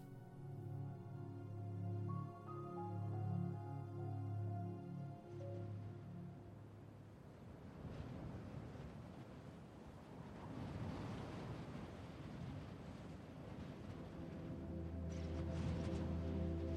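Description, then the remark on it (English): A cold wind howls and rushes steadily across the land in a snowstorm, with snow flurrying in all directions. It swells into broad gusts with a low moaning drone underneath, continuous throughout, with no voices. “A cold wind howls across the land, and a cloud of snow flurries around in all directions.”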